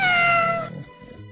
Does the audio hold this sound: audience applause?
no